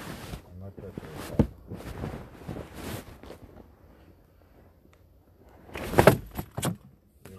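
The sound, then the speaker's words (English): Keys are thrown, jangling and clattering in a few sharp bursts, loudest near the end, mixed with bumps and rustling and some speech underneath. “Give him my okay, keys before I hurt you. You're throwing shit.”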